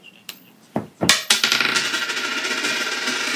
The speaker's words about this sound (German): Okay, die Münze ist irgendwo hingefallen. Also der Kopf ist oben.